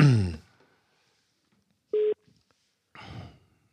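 A single short electronic telephone tone sounds once, clear and fairly loud, like the start of an outgoing call ringing. Brief bursts of voice come just before and after it.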